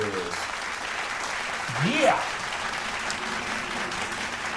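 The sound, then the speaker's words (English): Steady, dense applause fills the whole stretch at an even level, with a single rising whoop or whistle cutting through briefly around the middle. “I'm gonna clap that yes,”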